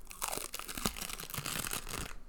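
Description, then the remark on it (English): A band-aid is peeled off skin in one continuous, scratchy tear lasting about two seconds, a dry crackling rasp with small sharp snaps along the way, fairly loud with no voices. “I can actually take the band-aid off and show you right now”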